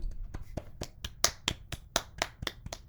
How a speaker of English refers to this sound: Just really, just a round of applause for them.